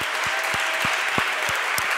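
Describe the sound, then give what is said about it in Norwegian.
Steady audience applause: a dense wash of many hands clapping at an even level, with a few sharper individual claps standing out at a rough, regular pulse. “La oss alle gi dem en skikkelig, skikkelig applaus!”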